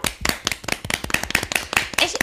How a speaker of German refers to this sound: Erstmal einen kurzen Applaus dafür, ja.